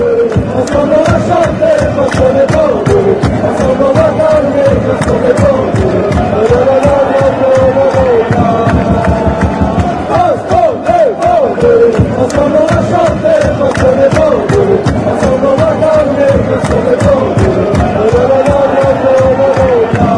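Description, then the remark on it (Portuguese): A large crowd of Bordeaux football supporters sings a chant in unison, a song exalting pride in the city of Bordeaux: a loud, steady melodic swell of many voices with rhythmic pulses running throughout, never dropping off. “A gente vai dar voz finalmente à torcida do Bordeaux, ouvindo uma canção que exalta o orgulho de ser da cidade de Bordeaux, ou na verdade de Bordeaux.”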